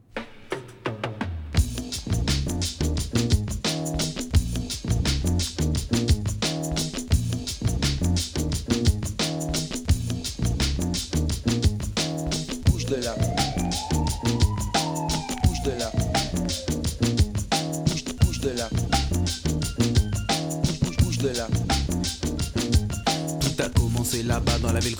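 A French rap hit that reached number one and played on repeat on the radio plays loudly and continuously, with a steady, punchy beat and a layered instrumental groove running the full length, plus a brief gliding melodic swoop midway.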